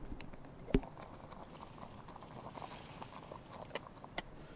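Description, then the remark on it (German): A coffee maker finishing its brew, with quiet, irregular sputtering and gurgling broken by a few sharper clicks and pops. No one speaks. “Okay, Leute, der Kaffee ist fertig.”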